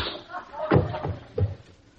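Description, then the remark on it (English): Two heavy, dull punches land on a man, knocking him out, roughly two-thirds of a second apart, each a sharp low thud, with faint scuffling in between. “Junior, you knocked him out.”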